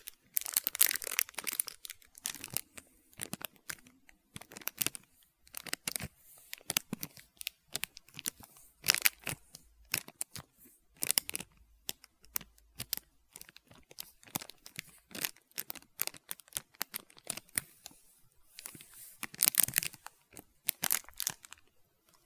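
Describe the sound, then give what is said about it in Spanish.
Crisp plastic wrapper of a chocolate-coated ice cream bar with nuts crinkling and tearing as it is opened, in dense bursts of rustling and crackling, with a few short pauses, continuing for the full stretch with no talking. “Y lo tengo aquí Viene en una bolsa de plástico.”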